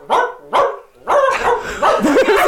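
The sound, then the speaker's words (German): A dog barks repeatedly and loudly: two sharp, separate barks, then a brief pause before a faster, almost continuous run of barking. No one speaks. “Kylo, was meinst du denn? Einmal für jede Zigarette einmal bellen.”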